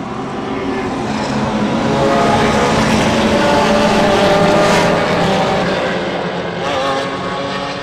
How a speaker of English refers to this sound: Green flag's in the air. Let's go racing. And they're loud.